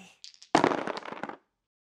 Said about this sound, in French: Jules, lance les dés